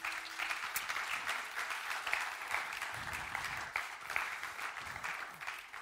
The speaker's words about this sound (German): Vielen Dank an unsere Bands. Komm, wir geben ihnen einen großen Applaus.